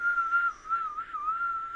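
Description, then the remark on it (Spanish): A person whistles one steady, airy tone that wavers gently up and down, imitating the howling wind of a hurricane. It is moderately loud, with no talking. “No, chiflaba bien mamón, güey.”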